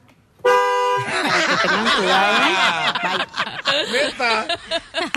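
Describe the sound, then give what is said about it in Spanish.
A loud car horn gives one sustained blast lasting well under a second, then several voices break into lively chatter and snickering laughter. “Oigan, ahorita por si andan en la calle, nada más para darles un pitazo.”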